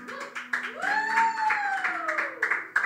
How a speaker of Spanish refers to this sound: Fuerte el aplauso.